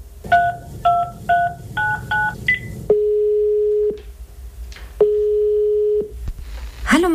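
A quick run of six touch-tone beeps as a number is dialed to call someone at the Münchner Stadtdetektive (Munich city detectives), then two long, steady ringing tones with a pause between them, and a voice briefly answers at the very end.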